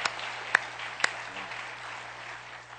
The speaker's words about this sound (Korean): 우리 하나님의 영광 박수 올려드리겠습니다.